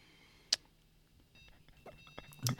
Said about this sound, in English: Seems like a uh, beeping going on. Fire alarm. Hopefully, smokes. Actually, sounds not. a little less shrill than a fire alarm. Maybe it is. Quite loud.